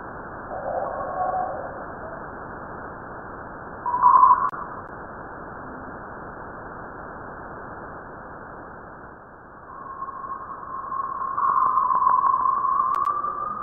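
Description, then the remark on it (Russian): A sonification of data from a Voyager space probe (the Voyagers were launched in 1977), about 20 seconds compressing events spanning three years: a steady, muffled hiss with brief mid-pitched tones, a short bright burst, then a wavering tone that swells louder toward the end. No one speaks. “Это совсем короткая запись, там примерно 20 секунд, но в ней спрессованы данные о событиях, которые заняли целых три года.”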